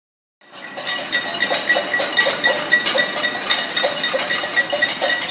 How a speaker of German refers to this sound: Als die Repression zunimmt und das Agieren in der Öffentlichkeit erschwert, schlagen Tausende abends von ihren Wohnungen und Balkonen mit Töpfen und Pfannen Krach, der sich lärmend über die Dächer ausbreitet.